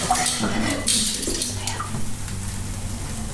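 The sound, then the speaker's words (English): Dishes and utensils being washed up, with clinks and knocks of metal and crockery over a steady background of running water and kitchen noise, while an Indonesian tempeh dish is being cooked. “Okay, I'm just gonna wash it up.”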